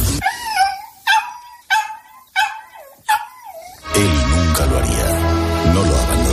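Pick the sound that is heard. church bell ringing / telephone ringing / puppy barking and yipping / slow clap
puppy barking and yipping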